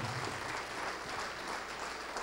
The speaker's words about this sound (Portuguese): Vamos aplaudir mais.